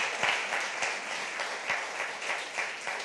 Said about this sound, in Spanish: Dele un aplauso a Dios, por favor, ¿sí? Más fuerte, más fuerte.